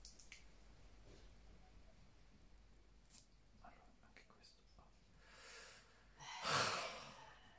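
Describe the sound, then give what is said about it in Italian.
A sharp sniff near the end, preceded by a softer inhale, as someone breathes in the scent of Marc Jacobs Perfect perfume against a quiet background with faint handling noises. “adesso sono curioso, aspettate a te per sentirlo.”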